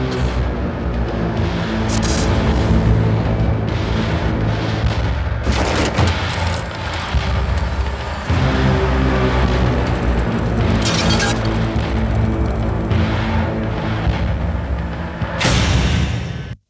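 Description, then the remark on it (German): A Ferrari sports car drives out of a truck, its engine roaring loudly and continuously, with deep rumbling and sharp booming bursts layered over a dense, full mix, with no one talking. “So, ich habe hier nochmal einfach so zum, zum Hören nochmal diesen, diese ah, Präsentation, ah, wie dieser Ferrari aus dem LKW fährt.”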